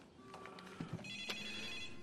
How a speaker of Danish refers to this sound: Nå, der er telefonen. To sekunder.